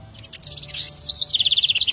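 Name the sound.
birds singing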